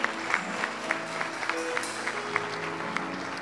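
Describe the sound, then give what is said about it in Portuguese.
An audience at a church service claps together for Jesus in a steady, even rhythm, the claps sharp and moderately loud over sustained, held musical tones underneath, with no one speaking. “Dê uma salva de palmas a Jesus aí.”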